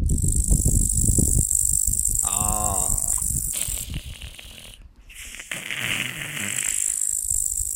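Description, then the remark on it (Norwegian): A cicada buzzes in a loud, shrill, continuous drone that briefly cuts out near the end, with rough rattling and crackling noises underneath. “Ja, faen, jeg tror jeg tenkte på Siris.”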